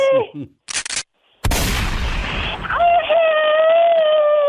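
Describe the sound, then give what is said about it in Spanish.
Sound-effect gunshots: a short crackling burst, a brief pause, then a loud blast that rings on with a sustained whining tone, as if from a ricochet or echo. “Ahí están los balazos.”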